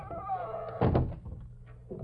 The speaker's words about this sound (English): Come on in. Close the door behind you.